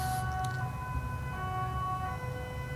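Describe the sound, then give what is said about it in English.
An emergency siren sounds outside, a steady sustained wail over a low rumble of traffic, continuous throughout, with no one talking. “it's spontaneous audio design works lovely it's perfect”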